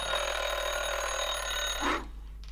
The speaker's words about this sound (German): So, der Wecker hat gebellt.